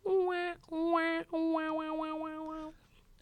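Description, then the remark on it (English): A comedic fail sound effect: three descending buzzy, brassy tones, the last one held and wobbling before cutting off, loud with no talking over it. “see now i need to give you a fail sound”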